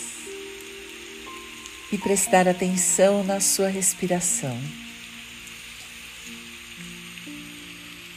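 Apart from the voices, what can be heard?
rain falling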